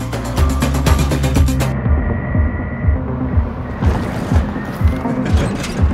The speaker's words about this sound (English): it sound like you're suddenly in the car and the music has been muted. All the high frequencies have gone away